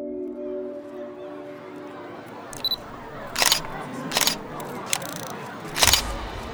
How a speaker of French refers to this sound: Dans le viseur de son appareil, le photographe hésite. Il a pris une rafale de photos, mais il n'est pas certain de ce qu'il a shooté.